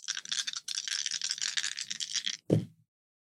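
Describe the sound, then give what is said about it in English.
Dice rattle briskly in a cupped hand or cup for a couple of seconds, then tumble out with a short clatter and stop, a roll made with advantage. Clear, with no one speaking. “I'm rolling with advantage because I because you're using, using your oracle your oracle bones.”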